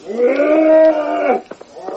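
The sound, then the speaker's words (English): A buffalo roars as it begins its charge, a deep, loud bellowing roar that holds steady for over a second, then cuts off, followed by a few faint knocks and rustles. “Head down, the buffalo roared and began his charge, but then it seemed as if a miracle had happened was another horse approaching, the wild cry of an oncoming rider.”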